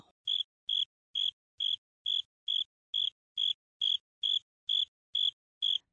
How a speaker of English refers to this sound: It all started with the sound of crickets. Actually, just one cricket. Let's call him Julius. There I was, trying to sleep one night, being kept awake by the nagging and insisting sounds of Julius. I can hear it now.